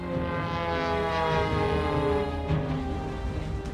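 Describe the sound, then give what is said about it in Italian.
The Wright brothers' Flyer, the first airplane in history, first flown on 17 December 1903, drones steadily overhead, its buzzing engine holding a constant, fairly loud hum with rich layered tones, heard alone without any voices. “Si trattava del Flyer, il primo aereo della storia.”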